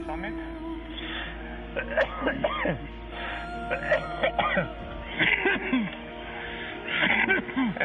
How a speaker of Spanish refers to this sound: Todo el mundo está tosiendo. Así es la vida, a 7.800 metros de altura.